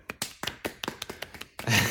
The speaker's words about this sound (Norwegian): Eh, så en liten applaus eh, for det.